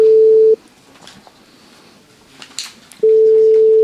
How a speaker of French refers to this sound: Est-ce que est-ce qu'on peut l'appeler Ah, ça sonne.